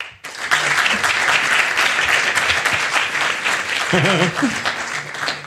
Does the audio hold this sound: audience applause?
yes